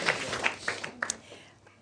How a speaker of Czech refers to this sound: Já tleskat nemůžu, tak musíte vy. děkuji, děkuji, děkuji.